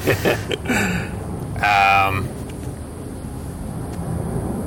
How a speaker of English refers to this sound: Please excuse the, excuse the planes. That's um, all right.